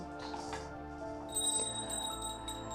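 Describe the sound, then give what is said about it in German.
Soft, sustained meditation bell tones hum and shimmer in overlapping layers, with a fresh, brighter strike ringing out partway through and slowly fading. No voices. “Ja, ja, ja, ja, und ja, da helfen auch so die Glockentöne.”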